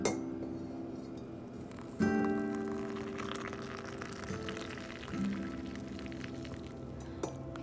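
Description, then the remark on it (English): Coffee mugs clink together in a toast, several bright, ringing knocks spaced a couple of seconds apart, clear, each tone lingering briefly before the next. No one speaks. “Coffee cheers, my friends.”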